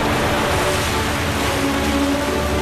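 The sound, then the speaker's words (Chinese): The Hukou Waterfall on the Yellow River pours without pause, a loud, dense rush of water that holds steady from start to finish, with a low rumble underneath and no voices. “也导演了壶口瀑布的震撼绝唱。”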